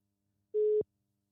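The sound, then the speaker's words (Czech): A single short burst of a steady, pure telephone ringback tone from an outgoing call to a friend, clear and fairly loud, cutting off abruptly with nothing else around it. “Dobrý, zvoní to.”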